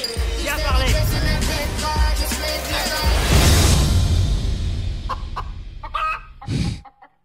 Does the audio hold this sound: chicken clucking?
yes